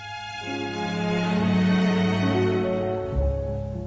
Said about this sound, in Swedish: Eh, så vad har de då gemensamt utöver det uppenbara? Jo, det mesta faktiskt inte bara är det bokstavligen samma julmusik som används i flertalet av dem, mm. alltså mm. literally. eh, och, eh, det låter så här.